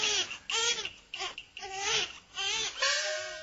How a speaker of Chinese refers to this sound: 哎呦，这哪里是鬼呀？是个伢子的哭声嘛，老头子，你快去看看喏。